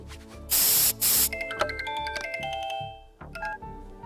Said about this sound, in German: Was sprüht ihr da Eine Wurst? Ach nee, ist keine Wurst.